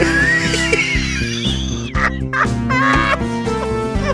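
Chickens cluck and squawk in short bursts over a steady, rhythmic musical backing that plays throughout, fairly loud.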